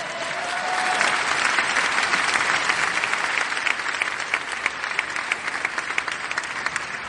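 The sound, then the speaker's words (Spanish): An audience claps steadily for about seven seconds, a dense, even wash of many hands with a few sharper individual claps standing out, fairly loud and with no talking over it. “Si van a aplaudir, aplaudan.”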